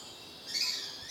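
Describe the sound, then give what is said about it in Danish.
A Mexican spadebill gives a single thin, high-pitched call lasting about half a second, clear against a faint steady hiss, with no voices present. “Mexico spadenæb. Ja, jeg havde heller aldrig hørt om dem før, men det er altså fugle, der lever i områder, hvor der gror sukulenter i naturen.”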